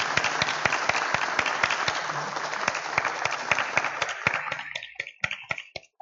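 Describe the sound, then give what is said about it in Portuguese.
A small audience applauds to welcome a debut author of a published book as she moves to her seat, in a steady, dense patter of clapping that gradually thins out into a few scattered, separate claps before fading. “Então a gente vai bater palmas e ela vai passar.”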